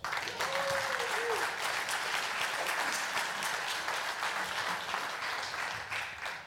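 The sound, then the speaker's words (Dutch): Steady applause from an audience for three couples being introduced fills the whole stretch, a dense, even wash of many hands clapping without pause, with a brief faint tone rising early on. “Dus ik zou willen vragen. Met applaus.”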